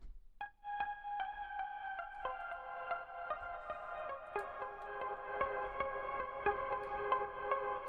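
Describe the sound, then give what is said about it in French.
A lone keyboard part, doubling a pseudo-electric piano in a song's choruses, plays sustained, layered chords with steady, evenly spaced note attacks, moderately loud, with a slightly processed, echoing tone and no voices. “il y a un clavier qui intervient et qui vient doubler le, piano électrique, enfin pseudo-électrique, euh, dans, les refrains, entre autres.”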